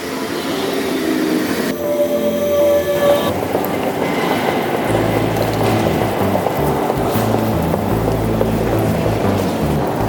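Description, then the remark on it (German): A regional train (RB) pulls into a station at platform 1 with a loud, steady rumble, a brief high-pitched squeal early on, then deep rolling clatter as the cars pass. No one speaks. “Gleis 1, Einfahrt, RB, 2.”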